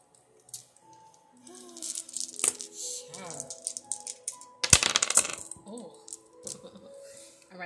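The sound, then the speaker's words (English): Dice are rolled, clattering and rattling across a hard surface in a burst of small clicks, followed by a louder knock as one bounces onto the floor and lands showing a one, the dice totalling seven, with faint background voice and hum. “Let's roll the dice and”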